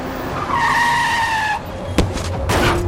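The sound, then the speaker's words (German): A car speeds toward a person on a small residential street in a new housing development, with a loud, sustained tire squeal lasting about a second, followed by a sharp bang and a rumbling burst of engine noise. No one speaks. “Wie aus dem Nichts kam der Wagen auf mich zugerast in der kleinen Wohnstraße mitten im Neubaugebiet.”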